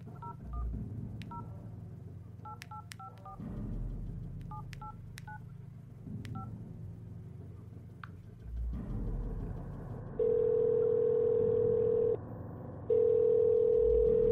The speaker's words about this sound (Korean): 난 잠시 게임을 하는 척하며 그들의 대화를 엿듣다가 아까 저장해뒀던 번호로 전화를 걸었다.